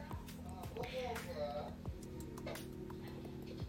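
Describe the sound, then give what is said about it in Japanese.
Indistinct voices of delivery company workers who have come in murmur in the background, faint and unintelligible, over a low steady hum and a few light knocks and clatters. “運送会社さんが入ってきたからちょっと音声が入ってますけど気にしないで続けますね”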